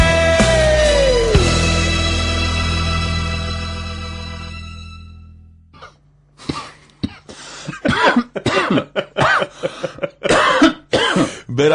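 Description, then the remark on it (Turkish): A song's final notes ring out and fade, then a string of harsh coughs and throat clearing follows, several rough bursts in quick, uneven succession. “Öksürükle başladık.”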